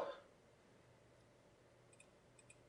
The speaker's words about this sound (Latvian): Kurš klikšķina peli?